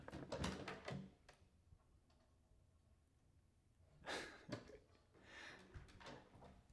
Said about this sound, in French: Alors il y avait des petits micros et des enceintes, j'avais pas très bien compris à quoi elles servaient, mais en fait elles diffusent le son des, portes, en fait le bruit d'ouverture des portes.